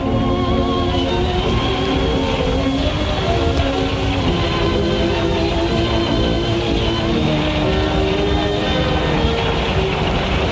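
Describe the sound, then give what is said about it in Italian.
A centrifuge machine spinning a concrete mold at about 500 revolutions per minute roars steadily, a dense mechanical rumble with sustained whining tones layered on top, holding constant without pause and with no voices. “Si Inizia così il processo della centrifugazione che dura circa 7 minuti a 500 giri al minuto.”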